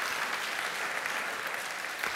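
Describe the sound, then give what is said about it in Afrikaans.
Steady applause from an audience for a couple's 51st wedding anniversary, a dense, even wash of many hands clapping at a constant moderate level for about two seconds, with no voices standing out. “Geef hulle ook 'n lekker hande klap toe. Applaus.”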